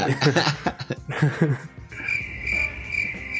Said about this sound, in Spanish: Este es el momento en el que pones el grillo.